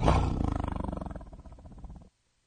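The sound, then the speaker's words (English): A deep, rumbling tiger roar, loud, starts with a powerful burst then trails off in a rough, pulsing growl over about two seconds before falling silent. “There's a tiger in here.”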